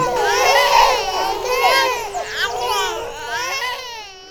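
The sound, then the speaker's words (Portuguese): A comic crying and sobbing effect voicing the crying houseplants of a home office: several high, wavering wails overlap in a continuous, exaggerated blubbering chorus, loud, lasting the whole few seconds with no plain talk. “todas as plantinhas do home office estão chorando.”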